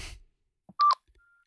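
A quick, loud electronic keypad tone, a phone dialing beep or two in rapid succession, as someone dials a phone after a brief rustle, then quiet with a faint lingering hum.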